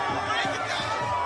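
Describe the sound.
A dense, steady roar of crowd noise from a pro-Palestinian protest outside the White House, with many overlapping voices shouting and chanting, loud and continuous throughout the short stretch. Protesters are throwing things and shaking the fences.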